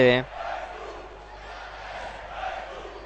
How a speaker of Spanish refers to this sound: Bueno, la gente anima.